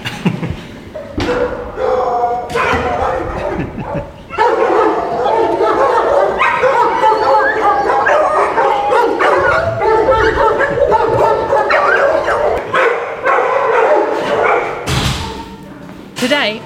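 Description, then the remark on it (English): A pack of beagles and harriers barks and yelps excitedly in kennels, a dense, loud, unbroken chorus of overlapping barks with occasional thumps throughout. “it might get a bit loud out here is when they, when they see a new person, they might get very uh, excited.”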